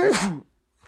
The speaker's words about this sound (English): Bless you.